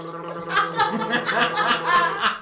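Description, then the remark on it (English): A dying man, tall, in a long black overcoat and holding a package, makes a wet, throaty gurgling sound before he falls: a steady bubbling rattle with choppy pulses lasting a couple of seconds. “And a tall guy in a long black overcoat stood there with a package in his hands, making gurgling noises before he fell like a tree.”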